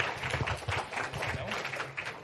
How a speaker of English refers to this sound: Yes, welcome them. A round of applause.